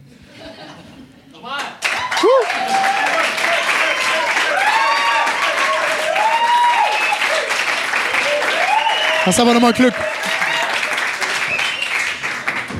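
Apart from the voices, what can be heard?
audience applause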